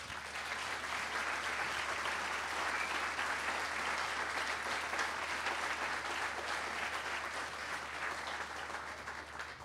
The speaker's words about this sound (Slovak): Myslím, že to si zaslúži potlesk.